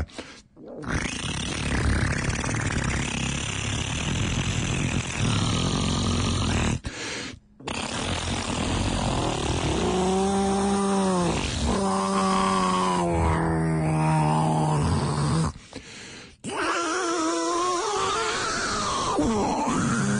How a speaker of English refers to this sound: I will do um, a solo for the Cheek synthesizer. But actually, you need two microphones for it uh, to play it in stereo. But a mono version, uh, some some excerpts would sound like.